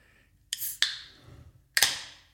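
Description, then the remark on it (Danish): A bottle being opened: sharp cracking and hissing bursts, one sudden release followed by a fizzy decay, then a second louder crack and hiss. “Det lyder noget social lubricant.”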